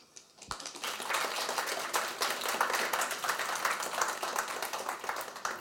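An audience at an evening book talk applauds to welcome the author and the interviewer, many hands clapping in a dense, crackling patter that starts abruptly after a brief quiet moment and holds a fairly even loudness throughout.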